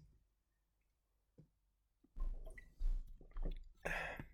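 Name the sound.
sipping seltzer water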